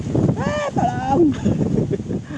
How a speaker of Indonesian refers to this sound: oh, sorry sorry tadi ada badai sedikit karena kita record di alam terbuka ya